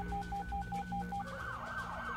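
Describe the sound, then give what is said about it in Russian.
Police and ambulance sirens blare loudly as they arrive at Robinson's trailer, a rapid pulsing high-low tone giving way to a rising, sweeping wail as another siren joins over a low rumbling engine. “Вскоре к трейлеру Робинсон уже подъехала полиция и карета скорой помощи.”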